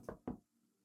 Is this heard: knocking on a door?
yes